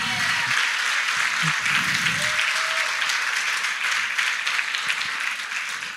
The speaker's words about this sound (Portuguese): Glória a Deus, pode aplaudir.